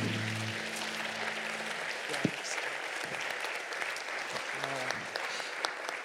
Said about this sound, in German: Give the Lord a mighty hand. Lass uns dem Herrn einen Applaus geben.